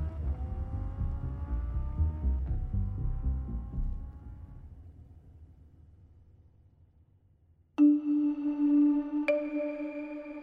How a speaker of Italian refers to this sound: Una volta arraffato tutto il possibile, scappano da una porta sul retro dove Notar Bartolo li aspetta con il motore acceso non lasciando alcuna traccia dietro di loro.